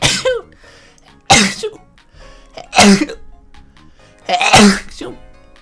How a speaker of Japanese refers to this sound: やばい、くしゃみが。